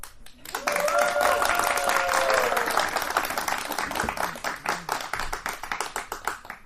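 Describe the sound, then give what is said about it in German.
A live audience in front of a stage bursts into sustained applause, dense clapping that gradually thins into scattered individual claps; a brief whoop or cheer rises near the start. “Ich sitze auf einer Bühne und vor mir ist ein Live-Publikum.”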